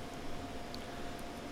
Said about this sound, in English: That stupid air conditioner is listed as having 14,000 BTUs. You can hear it in the background. You don't even need the mic. You can probably hear it from wherever you are, just in the air.